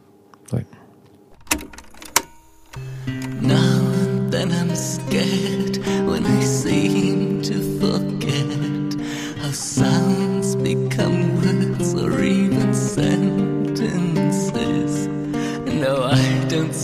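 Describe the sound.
A few clicks and thumps, then a gloomy band recording fades up and plays steadily at full volume, with sustained dark, droning tones and a voice singing or speaking over the music.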